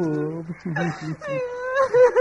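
A person cries and wails over an uncle who has just died, with choppy, sobbing bursts that rise into a longer, higher-pitched moaning wail, loud and emotional throughout.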